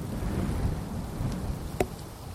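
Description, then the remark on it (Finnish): Strong wind blows outdoors across the microphones in a steady, low, rumbling roar throughout, with a single brief sharp knock standing out near the end. No one speaks. “Vähän kovempi tuuli. Huomaat, että luonto on vihainen.”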